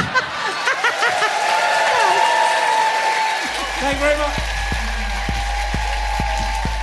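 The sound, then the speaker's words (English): An audience applauds guest Sarah Millican steadily, a dense wash of clapping while a man speaks briefly over it; halfway through, music with a thumping, regular bass beat starts under the continuing applause. “Ladies and gentlemen, please give it up.”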